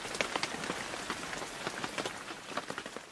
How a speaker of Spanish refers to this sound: Luego comenzó a llover, cada vez más y más fuerte, hasta que la lluvia se convirtió en un aguacero torrencial.